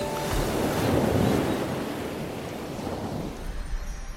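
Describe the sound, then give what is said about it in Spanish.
Ocean waves wash onto the shore in a steady, full roar, swelling early and then settling into a broad hiss with some wind noise, with no voices. “Querido Océano, escuchamos de ti desde pequeños.”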